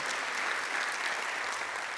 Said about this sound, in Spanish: ¿Qué tal si le damos un aplauso al Señor? Le digo por qué. Aplaude y ahí le digo por qué.